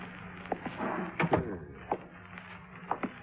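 A door is opened with a few soft clicks and knocks of the handle and latch, spread over a few seconds against a low steady hum. No one speaks.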